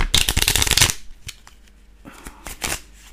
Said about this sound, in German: Und ich kann so voll krass die Karten mischen so. Das kann ich inzwischen richtig gut hier.